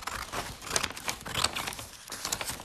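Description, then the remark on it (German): Continuous crinkling of paper or plastic wrapping as a pink phone chain is wrapped as a gift, rustling in irregular bursts with a few sharper crackles, heard on its own without any talking. “Also von daher, die packe ich auch erstmal ein.”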